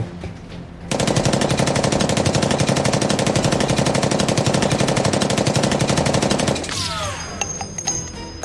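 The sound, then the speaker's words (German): A long, sustained burst of rapid machine gun fire riddling someone with bullets in front of a bulletproof glass door, loud and dense with sharp repeated cracks for several seconds, then cutting off into a quieter rattling tail with a few scattered high metallic pings. “Die Kugeln durchsieben dich, bis von dir nur noch etwas übrig bleibt, das ungefähr die Struktur hat von einem Nudelköcher oder Nudelsieb”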